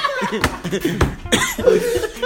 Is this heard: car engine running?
no